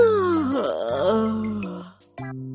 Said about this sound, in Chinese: 你在旁边一个劲儿的打哈欠，都传染给我了。